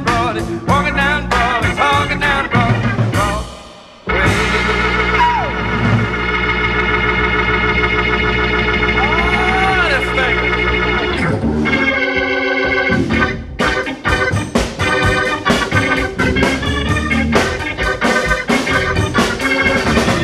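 A loud, driving rock and roll song with pounding piano and a singing voice, steady throughout apart from a brief drop near the start, then a long sustained vocal passage before the rhythm returns.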